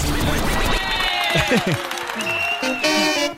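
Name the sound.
applause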